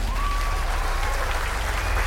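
Thunderous audience applause, a dense, continuous roar of many hands clapping at once, holding steady and loud throughout with no voices standing out.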